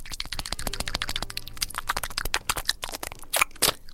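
A dog laps up water in quick, wet, clicking slurps that come in an irregular stream, growing a little louder and splashier toward the end. No one speaks.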